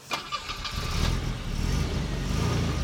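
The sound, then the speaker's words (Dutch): A car engine starts with a short burst of cranking, then settles into a steady low rumble that builds slightly as the car pulls away and revs, driving to the Korenburgerveen, a nature area with raised bog. No one speaks. “We rijden naar het Korenburgerveen, een mooi natuurgebied met hoogveen.”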